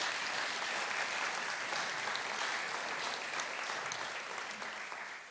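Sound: audience clapping applause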